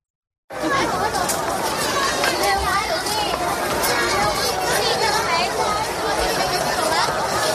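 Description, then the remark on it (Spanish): Loud, dense chatter of many children fills a busy school in China, overlapping voices and shouts blending into a constant babble with no single speaker standing out. “Este es el sonido de un colegio en China.”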